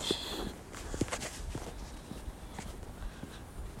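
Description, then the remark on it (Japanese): Steady footsteps walk along an outdoor surface in Osaka, Japan, on a walk toward Osaka Castle on a day of very fine weather, at an even pace, each step a soft thud over a low bed of street ambience, with no talking. “えー、っと今大阪に来ていて大阪城まで歩こうかなと思って散歩してます”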